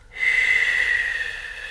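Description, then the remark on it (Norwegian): A steady, slow breath pushed out through pursed lips, as if blowing out through a straw, a thin airy hiss with a faint whistling edge that holds for over a second, alone. “Smerte, f.eks., den, den slipper taket hvis man puster sakte ut, akkurat som du skulle pustet motsatt ut av et sugerør.”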